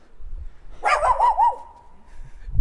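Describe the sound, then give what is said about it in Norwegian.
A dog standing in a window lets out a quick run of about four short, high barks in a row, clear, then goes quiet against a low background rumble. “Oi, der står det en hund i vinduet.”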